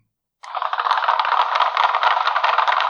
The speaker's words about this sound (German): Oh, sein Applaus. Wow, das ist ja hervorragend. Der klingt ja toll, ne?